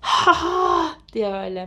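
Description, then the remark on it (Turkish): A single voice imitates the disappointed groan of a whole football stadium crowd after a player misses a goal: two drawn-out, moaning "haa" sounds separated by a brief pause, fairly loud, followed by a couple of spoken words. “Böyle o sırada çok üzülüyorsun falan ve bütün stat'tan şöyle bir ses geliyor.”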